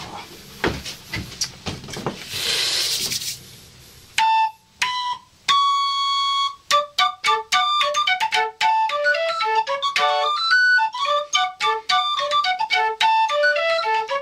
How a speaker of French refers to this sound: Le bellophone, c'est un instrument entièrement bricolé par Léonard, à base de tuyaux d'orgue, sifflets pour chiens, absolument Pompidou, sonnettes de bicyclette et toutes sortes de bazar du moment que ça fait de la musique.